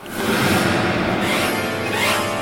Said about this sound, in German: Was du hier hörst, ist ein Saxophon.